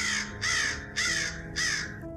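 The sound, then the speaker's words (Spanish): A raven caws four times in a steady rhythm, each call a harsh, raspy, loud burst, with a low rumbling background and no voices. “Entonces este pájaro de ébano cambió mis tristes fantasías en una sonrisa, con el grave y severo decoro del aspecto de que se revestía”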